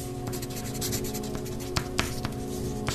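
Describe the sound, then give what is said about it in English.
Continuous scratchy rasping of a pencil moving across paper, fairly quiet, with a few sharper taps as the tip strikes, over a faint steady background hum. “She couldn't stand being in a classroom in high school with pencils scratching on the paper.”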